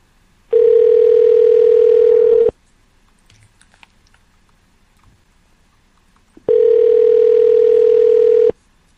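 phone dial tone

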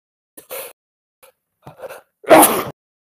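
sneeze

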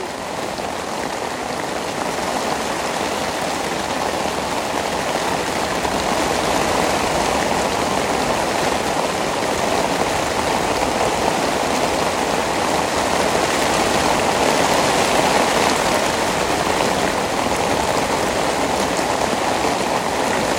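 rain falling on surfaces

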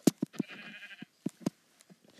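sheep bleating

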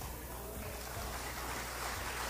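audience applauding

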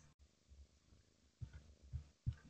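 cat

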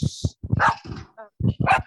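dog barking

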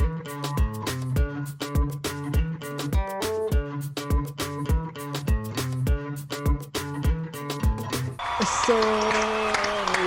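people applauding

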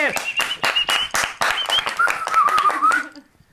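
studio audience applause

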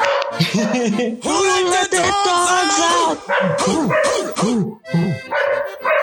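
dog barking

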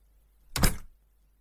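door being pulled shut

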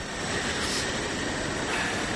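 subway station ambience

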